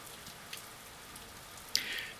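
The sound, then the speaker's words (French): Steady rain, not snow, patters on a hard surface in a soft, continuous hiss, with scattered drips ticking through and a brighter splash near the end, in January 2021. No voices, just the rain at a moderate level. “ah, comme vous pouvez l'entendre, il, ben, il neige pas.”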